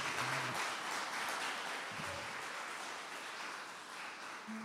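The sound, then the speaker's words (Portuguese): An audience breaks into steady, dense applause for Jesus, many hands clapping together in a sustained wash of sound that stays fairly even throughout, with a faint low tone or two beneath it. “Vão aplaudir Jesus!”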